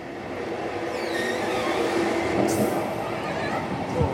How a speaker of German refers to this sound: Aber es ist schön kühl. Ach, das ist angenehm. Und gut, dass wir einen Abteil für uns haben, weil sonst würden wir uns hier alle auf den Füßen stehen.